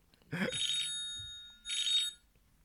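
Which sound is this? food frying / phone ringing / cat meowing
phone ringing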